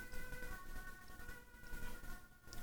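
An ambulance siren wails outside behind the speaker, a steady tonal drone layered over low rumbling background noise, faint and continuous throughout.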